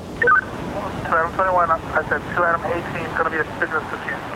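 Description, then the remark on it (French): A tinny, band-limited voice crackles over a handheld walkie-talkie held by a boat's skipper, who talks with operators on other boats in short bursts over a steady rumble of engine and wind noise. “Euh, c'est un talkie-walkie qui tient dans la main notre skipper.”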